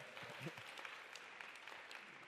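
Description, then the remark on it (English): Steady applause from an audience, dense clapping sustained without pause for a couple of seconds, with a faint voice or two murmuring underneath, as the audience applauds the news that a family has finally got a contract on the sale of their house. “And when I announced it on Wednesday at our life group, they, like you, clapped and we high fived, and there was so much joy.”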